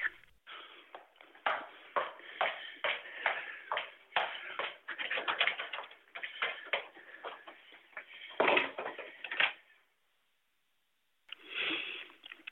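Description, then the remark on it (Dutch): Shuffling footsteps and rustling handling noises, muffled, continue for several seconds as a person walks to the toilet, followed by a brief pause and a short clatter of the toilet door being shut and locked. “Zo, de deur is op slot.”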